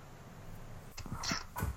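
A person sneezes once in a short sharp burst with a quick breathy build-up just before it. No one is speaking during the sneeze.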